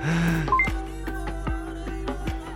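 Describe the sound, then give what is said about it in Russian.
A phone being switched to silent mode: a short electronic tone and two quick beeps, then a steady series of soft taps and clicks, with no one talking. “Телефон отключил? Да, у меня телефон отключен.”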